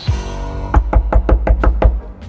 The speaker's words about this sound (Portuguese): Tem alguém batendo na porta, maluco. Abre essa porta, mulher.